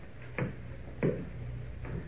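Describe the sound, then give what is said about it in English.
A mantel clock ticks slowly and steadily, three soft, evenly spaced clicks over a faint low hum, with no voices, as a fire burns down to embers. “Slowly the mantel clock ticks the minutes away, and the fire burns to embers.”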